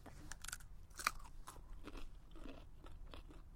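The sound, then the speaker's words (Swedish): Someone crunches on freshly pulled raw carrots that were dipped in a tub of rainwater, a series of sharp, crisp bites and chews, about eight irregular crunches with one louder snap early on, and no talking. “Alltså de smakar ju precis som de luktar.”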